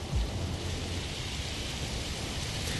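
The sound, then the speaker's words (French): At the opening of a song, steady, dense rain hisses across the whole stretch while a deep, low thunder rumble rolls underneath, with a brief heavier thump near the start. No voices, just the continuous storm. “Celle-là, ça commence par un orage”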